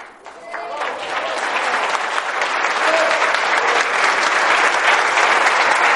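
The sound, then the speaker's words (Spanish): Sustained audience applause, a dense crackle of many hands clapping that swells within the first second and holds steady and loud to the end, with no talk rising above it. “Es un aplauso para todos nosotros.”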